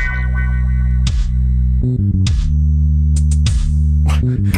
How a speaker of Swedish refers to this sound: låter som en ringsignal, såhär polyfonisk från tidigt 90-tal